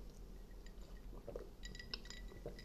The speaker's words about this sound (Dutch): Neem ondertussen heel even een korte slok.